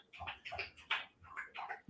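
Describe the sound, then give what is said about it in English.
A dog laps water quickly and noisily in a kitchen, a steady run of wet slurping splashes about three per second, fairly quiet with no voices over it. “Dog, my dog's drinking aggressively.”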